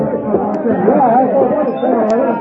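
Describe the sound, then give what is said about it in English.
Dense crowd chatter fills a busy saloon with a casino, many overlapping voices murmuring and talking at once at a steady, loud level with no single speaker standing out. “I'm sure no one heard the church chimes sound the hour against the din from the casino.”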